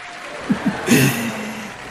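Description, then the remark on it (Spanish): A brief burst of audience applause, a dense crackle of clapping that swells after a couple of short vocal yelps and holds steady, with voices faintly underneath. “Aplausos, Robby.”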